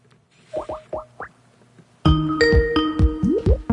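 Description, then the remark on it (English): A Skype notification chime: a few soft, quick electronic blips with sliding pitch, then a louder, fuller burst of layered tones and swooping notes. It plays alone, with no voices. “Why do I have to hear that, even though I've turned down, turned off all notification sounds?”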